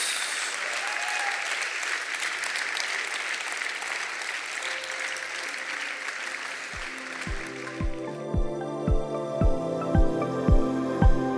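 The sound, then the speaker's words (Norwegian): A church audience applauds two people who have just prayed to accept Jesus, in a dense, sustained wash of clapping that gradually gives way to steady, regular beats and a held chord as music begins underneath. “Skal vi gi dem himmelen en applaus.”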